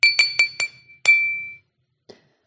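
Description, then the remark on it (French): A glass is tapped to call for a toast: four quick, even taps, then one firmer strike, leaving a clear bright ring that fades over half a second, followed by a faint final clink. “Et moi, je voudrais porter un toast. Mais avant de lever ma coupe en leur honneur”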